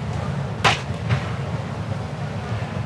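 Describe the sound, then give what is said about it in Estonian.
A thrown bottle whooshes briefly through the air, followed by a fainter second swish, both standing out over a steady low background rumble. “nüüd osad vaatasid seda pudelit, mis sinna lendas, oli nii, aga osad hoidsid pilgu siin”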